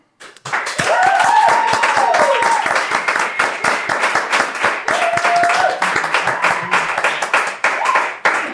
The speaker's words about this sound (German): Wir hatten vier Weine. Ab applaudiert mal, wie ihr es nacheinander fandet, welcher der beste war.